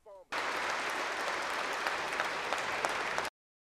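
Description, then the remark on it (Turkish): Members of Ukraine's parliament give Boris Johnson a standing ovation after his address, dense overlapping clapping sustained at an even loudness for about three seconds, preceded by a brief snippet of voice, then cut off abruptly. “Johnson Ukrayna parlamentosuna seslendi. Putin'in yenilmez olduğu efsanesine son verdiniz dedi. Ayakta alkışlandı.”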